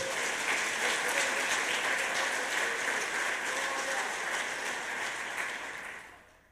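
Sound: audience applause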